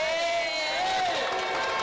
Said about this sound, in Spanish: Todos están aplaudiendo.